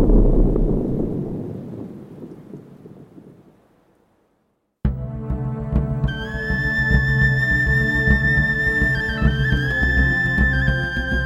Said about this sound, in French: Le bruit des avalanches se mêle au silence constant.